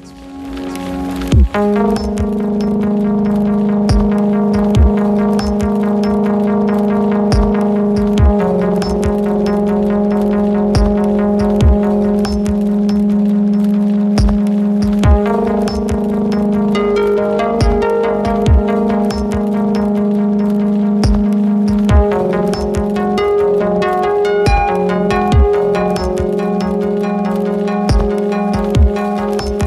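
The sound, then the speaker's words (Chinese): Iranian contemporary experimental electronic music built on a steady, humming low drone with layered sustained tones, peppered throughout by sharp irregular clicks and crackles; loud, continuous and wordless. “现在还剩最后一首歌的时间了，我们来听一下伊朗的当代的实验的电子乐。”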